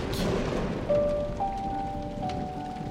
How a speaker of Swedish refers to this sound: Nu satt trollbarnen precis mitt i stormen och såg blixtrarna dundra om och om igen. Molnen var nu så stora och arga så halva skogen täcktes av dess mörker och dunder.